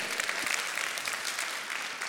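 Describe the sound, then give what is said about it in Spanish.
An audience applauds steadily, a dense wash of many hands clapping at once with no pauses, holding a fairly even loudness throughout and no voices standing out. “Un aplauso al Señor.”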